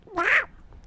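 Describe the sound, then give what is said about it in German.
A person imitates their imaginary house cat with a single short, nasal meow that bends in pitch, fairly loud, then quiet follows. “Das ist meine Katze, meine imaginäre.”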